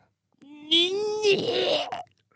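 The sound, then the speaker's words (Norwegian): A voice imitates a sputtering snowblower engine that chokes as it draws in snow: a strained, buzzing hum breaks into rough, gurgling noise for about a second and a half, moderately loud. “Sånn lyd som det skal det ikke være en snøfreser.”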